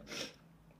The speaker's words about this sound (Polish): o Jezu, jeszcze, jeszcze kichnę.